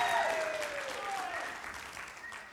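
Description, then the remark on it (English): An audience applauds steadily for its sound and media team during a morning service, a dense wash of clapping for a couple of seconds, with some voices mixed faintly into the crowd noise. “I said, give it up for our sound and media guys.”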